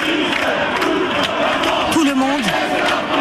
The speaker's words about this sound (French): La situation, elle est électrique. Ils lancent des gaz lacrymogènes, des manifestants en envoient des projectiles. Et là, vous entendez des slogans